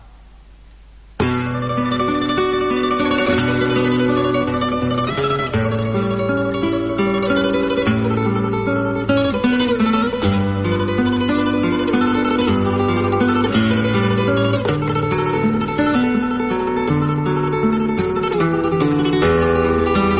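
A song by an Andalusian rock band kicks in after a brief quiet moment, full band with steady driving rhythm and layered guitars, loud and continuous throughout, no vocals in this stretch.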